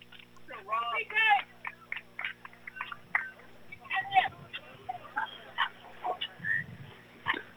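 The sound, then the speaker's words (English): A rowdy group of high school boys at a baseball game between Brady and Llano, shouting and chattering over one another as they leave, in irregular, moderately loud bursts, with a steady low hum running underneath. “Oh, my noisy high school boys are leaving.”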